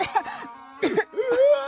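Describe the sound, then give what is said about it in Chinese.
A quick series of about four or five voiced sneezes, bright and breathy with a rising vocal tone, several different voices imitating the cats of Sanmiao Town sneezing in turn as red chili powder drifts down from the sky. “那艘精致的小飞船消失在了天际，随之而来的是红色的辣椒面燃料从天而降，它们飘飘扬扬地洒向了三喵镇，全镇的猫无一例外地打起了喷嚏。”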